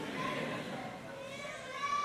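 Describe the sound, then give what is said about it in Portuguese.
A baby in the audience of a sermon cries, a steady wavering wail amid faint crowd murmur, lasting about two seconds without pause. “Mesmo que seja chorando que nem esse bebê aí, ó.”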